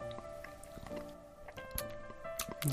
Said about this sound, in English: Wow, you just have a lot of saliva. I can hear all of it right now.